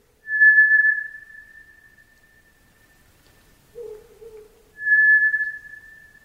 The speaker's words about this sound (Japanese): かつて神奈川県丹沢地方の中川温泉というところでこの声を不審に思った人が通報警察が出動して調べた結果虎つぐみの声と判明したという珍事があり新聞にも載る騒ぎとなりました